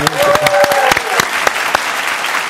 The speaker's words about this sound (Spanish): Un aplauso a esa actitud.